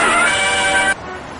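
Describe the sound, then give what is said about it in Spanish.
A loud ice cream truck horn blares in one steady, brassy blast for just under a second, then cuts off abruptly, leaving quieter background noise. “Ay, no mames, pero si es un pinche carro de helados, ¿cuál legionario móvil?”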